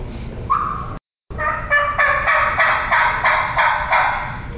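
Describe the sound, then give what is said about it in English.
A turkey call imitates a hen's yelp aimed at a gobbler: a steady run of about a dozen raspy, evenly spaced notes, loud, after a brief opening note and a short gap. No one talks. “I'm going to hit him with that basic sound that all hands make. I'm just going to yelp at him.”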